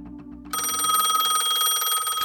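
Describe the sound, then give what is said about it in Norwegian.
A telephone bell bursts into loud, continuous ringing after a brief low rumble, its bright metallic clatter sustained for the rest of the moment. “De var allerede ute i hallen da telefonen atter himede.”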